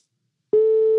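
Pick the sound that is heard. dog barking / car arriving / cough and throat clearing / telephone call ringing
telephone call ringing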